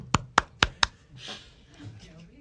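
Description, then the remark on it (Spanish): Four sharp, bright hand claps in a quick, steady rhythm, then a softer burst of noise and a low murmur of background sound. “yo le voy a dar un aplauso. Aplaude”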